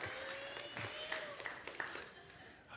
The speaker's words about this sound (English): oh, you can clap, sure. All right, we'll give you a round. Why not? All right, thank you.